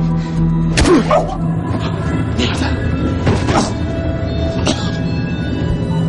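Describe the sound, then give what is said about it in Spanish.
A hard punch to the stomach lands with a dull thump, followed by a few heavy thuds as a man with bound hands falls to the floor, with muffled vocal sounds and a low background hum. “le da un puñetazo fuerte en el estómago y Robert cae maniatado al suelo”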